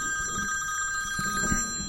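A telephone rings steadily with a bright, sustained electronic tone, clear, with no talking over it, as an incoming call arrives at night in a dark forest where a tent is pitched.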